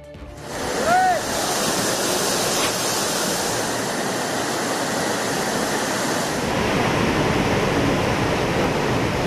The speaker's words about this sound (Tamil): குறுவை சாகுபடிக்காக மேட்டூர் அணை திறப்பு மலர்களை தூவி தண்ணீரை திறந்து வைத்தார் முதலமைச்சர் ஸ்டாலின்